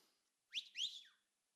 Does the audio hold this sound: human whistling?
yes